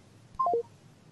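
Three quick electronic telephone tones step downward in pitch, clear and fairly loud, as a listener's phone call from Prague drops. No one speaks, and a faint line hiss sits underneath.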